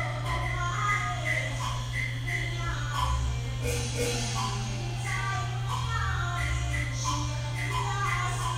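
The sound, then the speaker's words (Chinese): Taiwanese opera performed at a temple square drifts in from a distance, recorded from inside a home: wavering sung melodies and instrumental lines rise and fall faintly over a steady low hum. “现在你听到这个啊，是那个从房子里面，就是从呃住家里面往外录的声音哦，录远处在庙庙口在演歌仔戏的那个远远的声音。”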